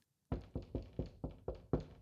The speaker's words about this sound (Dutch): Hij kwam aan bij de tempel en klopte aan.